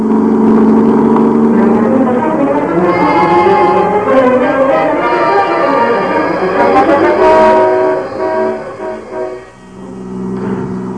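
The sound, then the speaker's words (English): A car engine roars steadily at speed, loud, its droning pitch rising and falling as the driver keeps the gas pedal pressed down hard, dipping briefly near the end before surging again. “I kept my foot heavy on the gas pedal.”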